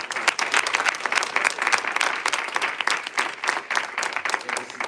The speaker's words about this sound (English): Somebody give him a hand clap of praise.